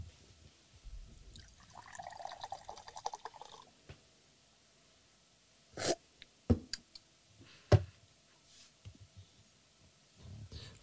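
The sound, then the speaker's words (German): Iced tea pours from a can into a glass in a steady, fizzy gurgle lasting a few seconds, followed by a handful of sharp knocks and clinks. No one speaks. “So, ich gieße es hier ein.”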